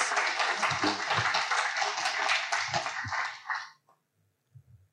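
A crowd bursts into loud, dense applause for a presenter at a property strategy presentation, a steady wash of many hands clapping for several seconds before it cuts off abruptly, leaving brief quiet with faint shuffling.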